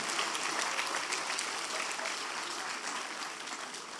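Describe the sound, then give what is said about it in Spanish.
An audience applauds the Lord steadily, a dense wash of many hands clapping at an even, fairly loud level that tapers slightly toward the end, with no clear voices rising above it. “Bueno, démosle un aplauso al Señor porque así va a ser.”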